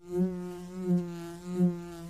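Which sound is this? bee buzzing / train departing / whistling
bee buzzing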